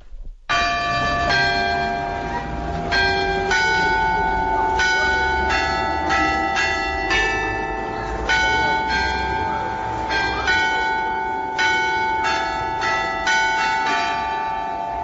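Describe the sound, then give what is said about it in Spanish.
Church bells ring out a slow, steady melody, each struck note blooming with bright, shimmering overtones that overlap and linger, filling the whole stretch without any voices. “el Ave María de Lourdes con ese sonido de las campanas tan hermoso”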